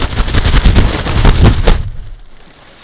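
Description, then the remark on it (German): A balloon is struck again and again in quick succession, a loud flurry of hollow thumps and slaps for nearly two seconds before it stops and all falls quiet. “Ich habe gerade so einen Luftballon hier äh, ein bisschen ähm, ja, rumgeschlagen.”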